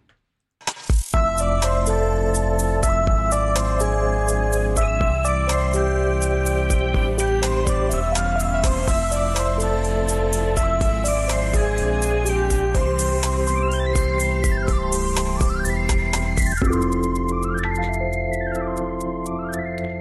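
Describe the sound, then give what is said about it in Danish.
The old theme jingle of a TV show about guessing the price of a house: bright and upbeat, it plays loud and continuous with no talking, busy melodic synth lines over steady bass, ending in repeated swooping, wavering synth tones. “Man bliver helt lykkelig og glad ind i af at høre den her lyd. Det er nemlig den gamle hammerslagslyd.”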